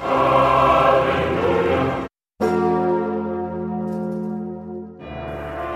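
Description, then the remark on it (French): A large cathedral church bell at Notre-Dame in Paris rings loudly, three heavy strikes with rich, lingering overtones, each swelling and humming before the next. A brief silent break comes after the first. No voices. “Je suis Froussimodo, le sonneur de cloche de la cathédrale”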